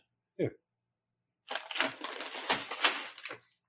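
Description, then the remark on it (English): A large 10-pound plastic bag of Milliard brand Home Essential citric acid is handled: a short soft bump, then about two seconds of loud crinkling and rustling as the bag is squeezed and shifted. “sound effects. It's called uh, um, Milliard brand Home Essential citric acid. 100% pure. A 10 pound bag.”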